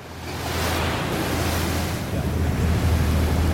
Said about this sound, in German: Die einst beliebteste Destination der Insel für Sonnenanbeter gleicht einer Geisterstadt. An der früher belebten Strandpromenade durchbricht nur das Schlagen der Wellen die gespenstische Stille.